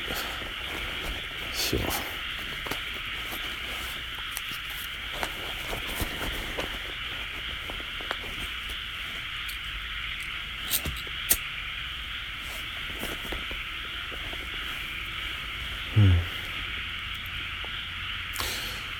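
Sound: frogs croaking outdoors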